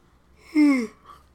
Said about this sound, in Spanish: No mames, de verdad que no puedo dejar, no, no puedo dejar de bostezar cuando estoy yo solo, güey.